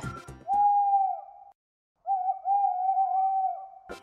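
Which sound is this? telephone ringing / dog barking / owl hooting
owl hooting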